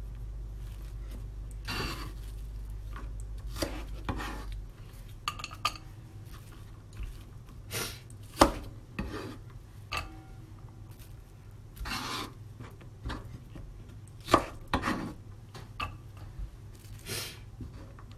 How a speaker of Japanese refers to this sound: まあ、玉ねぎはそんなに細かく切らなくていいかなと思ってもう切り終わっちゃった切りたいなベーコンと同じ大きさって考えてもうちょっと切る